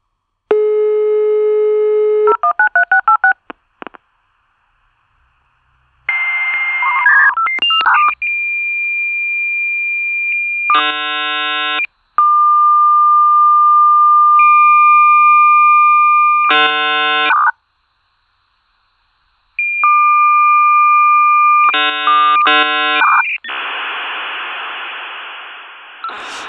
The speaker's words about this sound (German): Aber ähm, lustigerweise, also der Modem-Sound, den haben wir euch übrigens auch mitgebracht. Ähm, und können euch den nochmal vorspielen. Auch vielleicht für unsere jüngeres Publikum, die den gar nicht kennen aus eigener Erfahrung.